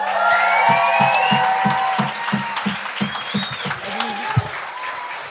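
A large show audience applauds and cheers loudly for the show's judge, Phil Roy, with dense steady clapping, whoops and whistles rising over it, sustained throughout.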